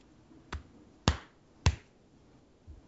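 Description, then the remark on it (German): Three firm, evenly spaced, crisp slaps of a person's hand patting their own shoulder, followed by a softer fourth pat. No one speaks. “Ich klopfe mir selbst auf die Schulter.”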